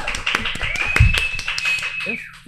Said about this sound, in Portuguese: Uma Obrigado. salva de palmas.